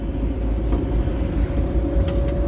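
Steady low road rumble and engine drone from inside a moving car, a constant hum with a faint tonal whine, continuous and fairly loud with no voices.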